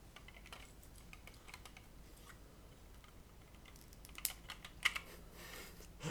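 Continuous clicking and light rattling of small plastic building blocks being handled and pressed together while attaching the rear part of a toy car, with a few sharper snaps near the end and no talking.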